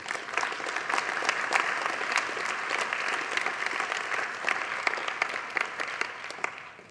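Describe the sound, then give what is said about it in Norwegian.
An audience claps steadily and densely for several seconds, a sustained wash of many hands with scattered sharper claps standing out, fading at the end. No one speaks over it. “Vi kan godt igjen klappe det.”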